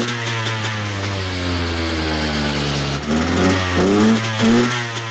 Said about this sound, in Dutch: Neem even je motorfiets op. En dan gaan wij raden. Ja, inderdaad. Eh, wij gaan eh, raden welke motorfiets jij dus bereidt. Dit is het geluid van jouw motor.